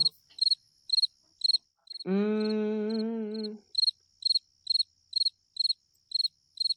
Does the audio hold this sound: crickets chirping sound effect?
yes